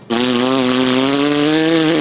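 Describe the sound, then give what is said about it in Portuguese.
A roulette wheel spinning sound effect: a loud, steady buzzing whir held for about two seconds, its pitch creeping slightly upward before it cuts off. No one speaks over it. “Eu vou rodar a roleta diferente, então.”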